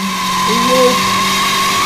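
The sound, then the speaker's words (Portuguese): A car engine whines loudly and steadily as a man arrives in his car, with a brief squealing sweep partway through as the tires screech. “Ele vem cantando pneu com o seu carro.”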